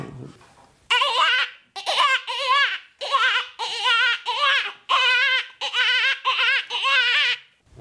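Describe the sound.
A person imitates a dying hare's distress call: a series of about eight loud, high, wavering, wailing squeals in quick bursts, sounding almost like a crying infant, with no talking.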